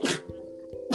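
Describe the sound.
A sudden, forceful sneeze bursts out, followed by a short voiced murmur and a second sharp breathy burst at the very end.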